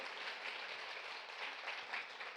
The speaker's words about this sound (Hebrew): אני חושב שמגיע להם עוד סבב של מחיאות כפיים לאומניות, כן כן